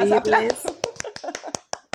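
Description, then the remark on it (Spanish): A voice is heard briefly, then roughly nine sharp hand claps follow at an uneven, slowing pace, each crisp and bright, with short silences between the last few. “Aplausos. Aplausos.”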